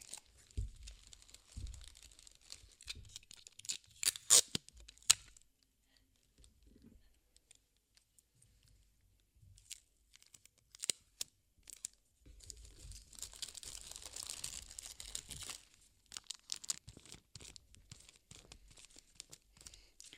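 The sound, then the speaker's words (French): Paper crinkling in bursts, with a few sharp rips of sticky tape being pulled off, separated by quiet pauses and a longer stretch of steady rustling near the middle, as paper is wrapped around a toilet paper roll and its end taped down. “Ensuite, scotchez l'extrémité du papier pour que ce soit bien entouré.”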